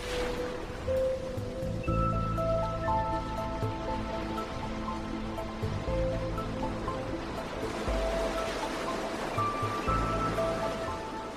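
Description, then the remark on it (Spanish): Calm Mediterranean Sea waves off the island of Mallorca, Spain, wash softly and continuously, a steady gentle surf with no distinct breaks, while sustained musical tones hum quietly underneath. No one speaks. “emitimos desde la isla de Mallorca en España, rodeados del mar Mediterráneo azul y su brisa marina.”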